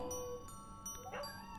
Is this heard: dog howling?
yes